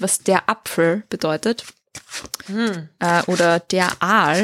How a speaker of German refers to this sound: Ihr hört mich hier übrigens die Karten mischen im Hintergrund.